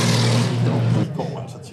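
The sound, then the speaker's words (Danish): A loud, roaring engine sweep from race cars driving past on a track fills the first second, then fades into background noise as a voice begins speaking. “Øh, bilerne har lige kørt, og jeg har ikke mere trumme hen tilbage.”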